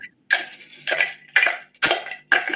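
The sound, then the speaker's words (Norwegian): Ice cubes clink and crunch in a series of about five sharp bursts roughly half a second apart, each a bright rattling clatter as the ice is chopped up to make it easier to eat. “Nå er det mye klirring i is her. Sorry, jeg måtte bare hakke opp isen som ble lettere å ete.”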